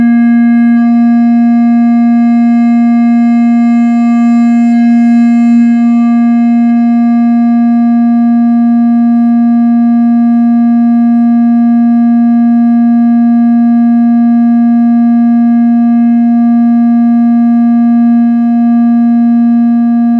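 A steady electronic sine tone, one of three sine tones at different pitches being played, holds at one pitch for about twenty seconds, loud and unbroken, with a faintly buzzy, harmonic edge and no voices around it.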